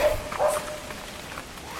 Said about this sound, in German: Uiuiui, der Hund ist wirklich böse. Und das war nur ein kleiner Dackel.